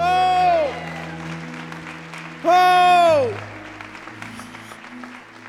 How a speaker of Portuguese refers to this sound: Dê um brado ao Senhor e aplaudo neste lugar.